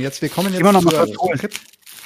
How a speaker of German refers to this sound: Ihr hört schon wieder die Knackfolie im Hintergrund.